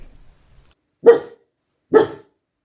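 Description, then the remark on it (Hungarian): A dog barks twice, two loud woofs about a second apart, with quiet pauses around them and no talking. “és akkor általában úgy szoktam vele lenni, hogy igazából ezt csinálhatnánk máshol is, ahol így nem ekkora zaj és nem nincs ennyi feleláró hangáló kutya.”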